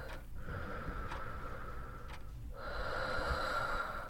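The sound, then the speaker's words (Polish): Slow, heavy deep breaths, long airy inhales and exhales with brief pauses between them, a muffled, slightly nasal rush of air and no talking, as a woman standing before a mirror takes several deep breaths and closes her eyes. “Stojąc przed lustrem, zakładała maskę na twarz, po czym brała kilka głębokich oddechów i zamykała oczy.”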